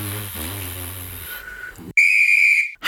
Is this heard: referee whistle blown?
yes